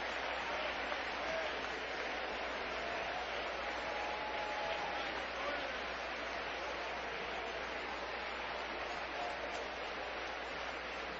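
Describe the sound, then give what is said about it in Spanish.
Sustained applause from a large crowd at a worship service, given as applause of liberation and victory for God: a dense, steady roar of clapping that holds at an even loudness for the whole stretch without pausing or fading. “Dele un aplauso de liberación al que vive y reina por los siglos y de victoria.”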